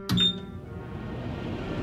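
A microwave oven reheating a slice of seafood pizza gives a short, bright electronic beep, then settles into a steady low mechanical hum that continues to the end. No one speaks.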